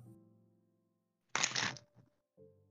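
A deck of playing cards sprung messily between the hands: a quick, loud, crisp fluttering burst lasting about half a second, followed by a couple of soft taps, over a low background hum.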